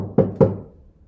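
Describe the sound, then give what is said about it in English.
Two firm knocks on a wooden door in quick succession, each a dull, resonant thud that fades, with no voices. “There was a knock at the door.”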